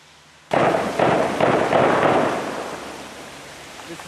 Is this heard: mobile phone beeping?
no